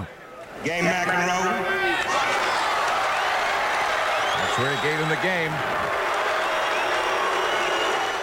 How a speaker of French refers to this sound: Le public gronde. L'appel au calme de l'arbitre de chaise reste sans effet.